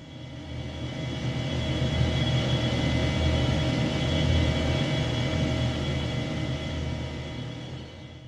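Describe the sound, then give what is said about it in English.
A steady, heavy mechanical hum with a deep low rumble and faint tonal whine, holding even and continuous throughout: the 17 massive turbines of the Hoover Dam generating more than 2 billion watts of electricity. No voices. “Now that's the sound of 17 massive turbine engines generating more than 2 billion watts of electricity.”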